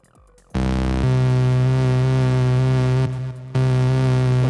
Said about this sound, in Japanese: 広めに取って残響音残す感じにしたいっすなこれがアナログシンセサイザー